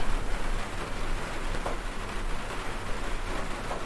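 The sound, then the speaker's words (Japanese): Steady rain pours down during a late-night thunderstorm in a dense, even hiss with a low rumbling undertone and occasional faint patters, holding at a constant moderate level throughout. No one speaks. “雷雨の中土日の振り返りなど”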